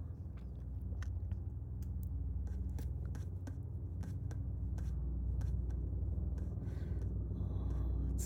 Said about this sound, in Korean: 지금 하늘에서 헬리콥터가 계속 날아다니고 있어서 소음이 조금 들어갈 것 같네요.